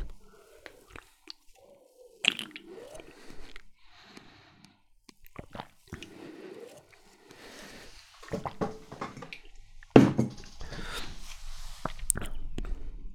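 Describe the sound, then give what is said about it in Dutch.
Several sips of a drink: soft wet slurps and swallows come in irregular bursts with quiet pauses between, and a louder gulping stretch near the end. No one speaks. “Ik neem nog een paar slokken.”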